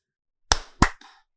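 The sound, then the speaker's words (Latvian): Two sharp, bright hand slaps in quick succession, like a high five, followed by a brief softer rustle. No voices. “Un, nu, mēs tā uz tradīcijām arī varam nobeigt šo sēriju ar sasitot rokas, kā, tāpat kā mēs sākām sēriju.”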